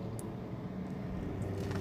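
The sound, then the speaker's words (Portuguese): A neighbour's car engine rumbles low and steady as it pulls into the garage, with a couple of faint metallic clicks over the drone and no talking. “É porque o carro aqui da, da vizinha entrou aqui na garagem.”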